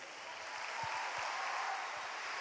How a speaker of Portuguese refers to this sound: Então vamos recebê-lo com uma calorosa salva de palmas.